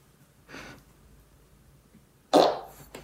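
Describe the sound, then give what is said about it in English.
Fart sound effects: a soft, airy puff comes first, then after a pause a louder, buzzing fart with a brief sputter at the end. No one speaks. “The fart vac fits discreetly under clothing.”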